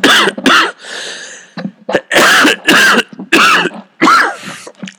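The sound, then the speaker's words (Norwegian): A run of harsh, loud coughs in quick succession, about six bursts over five seconds, mixed with raspy throat clearing between them, with no talking; the person coughing has an itchy throat. “Når jeg bare hosta mange”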